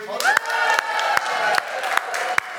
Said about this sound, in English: So why don't we, after three, give a massive great cheer and applaud those who are listening to podcasts? One, two, three.